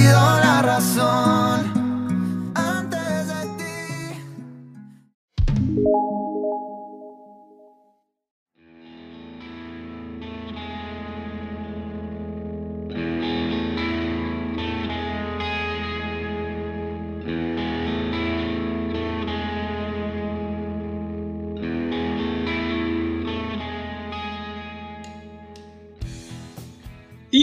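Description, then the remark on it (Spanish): A pop song by a Colombian singer-songwriter plays with layered, effects-heavy instrumentation, a steady sustained bass and harmonic textures, briefly breaking around five seconds before building back into a full, continuous arrangement. “recomendado de la semana es esto que están escuchando”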